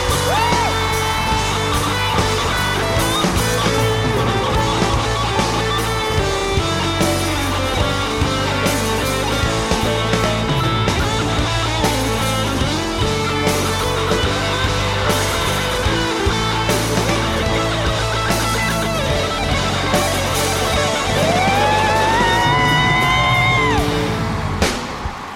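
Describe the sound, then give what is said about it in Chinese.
An audience at a live concert cheers and applauds loudly and continuously as band members are introduced, with whoops and yells rising over dense, ongoing live music for the whole stretch. “Yeah，掌声鼓励鼓励 again，大声点！”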